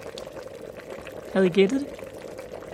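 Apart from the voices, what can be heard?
water boiling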